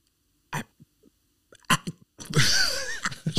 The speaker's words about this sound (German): Schnappatmung.